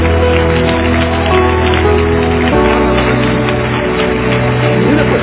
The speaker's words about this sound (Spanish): Bueno, denle un aplauso al Señor, no me lo dé a mí, al Cordero.